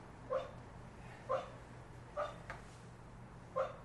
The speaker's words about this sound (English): I wonder if the mic is picking him up. Probably. That's really funny. Yeah, he's barking in his sleep.